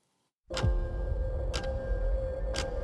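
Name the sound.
clock ticking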